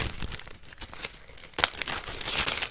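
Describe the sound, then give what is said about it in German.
A plastic bag crinkles and rustles continuously as someone rummages through it, with sharper crunching bursts near the middle and toward the end. “Ich, gucke in meine Tüte.”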